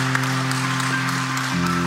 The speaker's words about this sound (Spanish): Hay alguien que está aquí por primera vez, algunos aquí por supuesto, y en el, público alce su mano, póngase en pie para que podamos darle la bienvenida con un gran aplauso y decirle estamos contentos con que nos haya acompañado